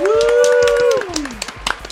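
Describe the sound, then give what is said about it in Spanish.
Quick, steady hand claps, fairly loud, run throughout while a voice holds a long, bright cheering note that slides downward halfway through, leaving the clapping to continue more sparsely. “Así que aplausos para la Scarlett.”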